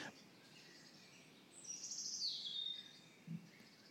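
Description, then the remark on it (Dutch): A crossbill calls from conifer trees in a garden, a bright, high-pitched sequence of rising then descending notes lasting a couple of seconds, over a soft background hiss with no one talking. “Maar tijdens het gesprek bleek de kruisbek een soort te zijn die in de naalbomen in zijn tuin zat.”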